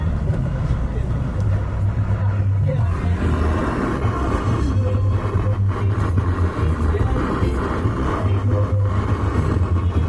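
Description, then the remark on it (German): Steady road traffic rumbles, a deep engine drone with a humming low tone that swells and eases as vehicles go past, loud and continuous throughout, with indistinct voices mixed in. “So, jetzt müssen wir ein bisschen auf den Verkehr aufpassen wieder.”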